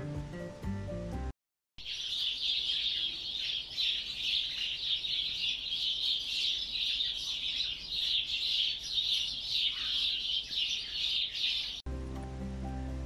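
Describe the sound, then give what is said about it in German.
A flock of sparrows chirps all at once for about ten seconds, a dense, steady chatter of overlapping high tweets, fairly loud, framed by brief snatches of music before and after. “Dann sitzen sie in einer größeren Gruppe beisammen und zwitschern alle durcheinander.”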